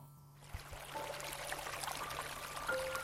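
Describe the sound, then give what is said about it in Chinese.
A stream flows steadily by a bridge on a night walk at Mount Kailash, its continuous bubbling rush swelling in after a quiet first half-second and holding an even, moderate level, with a faint low hum underneath. “到后面，呃，会有两条岔路，然后我会听到水流的声音，我会过一座桥。”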